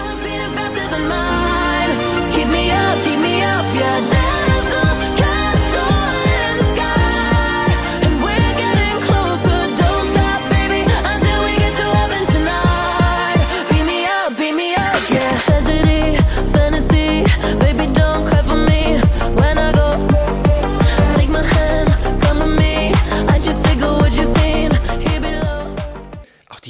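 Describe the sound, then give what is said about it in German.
An electronic pop track plays loud and steady, with bright layered synths over a thumping, regular beat; the bass drops out briefly around the middle before the full groove returns. “Synthes, wie die gesetzt sind. Also mhm. beim ersten Mal denkt man, es ist wirklich ganz einfach gemacht. Auch diese stumpfen Beats.”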